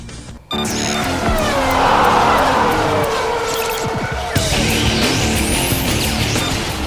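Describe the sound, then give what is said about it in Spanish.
Formula 1 race car engines roar loudly and continuously after a brief quiet start, with rising and falling whines as cars sweep past and a sharp tire squeal, no one speaking. “El rugir de los motores llega a juego limpio con la Fórmula 1 y más.”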